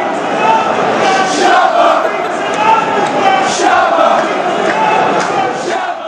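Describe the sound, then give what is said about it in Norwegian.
A large stadium crowd of Birmingham fans chants a sung supporters' song for Petter Løvenkrantz in unison, loud and sustained over a roaring, echoing background for the whole stretch, with the melody rising and falling steadily. “Birmingham-fansen har altså lagd en sang til eh, Petter Løvenkrantz.”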